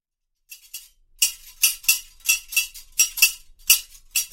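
A candy seller's scissors clack open and shut in an alley in a quick, uneven rhythm: about a dozen bright, metallic snips, loud and crisp, with no voices.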